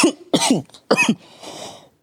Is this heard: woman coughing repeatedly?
yes